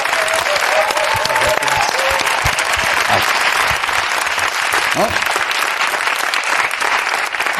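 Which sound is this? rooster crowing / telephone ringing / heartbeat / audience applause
audience applause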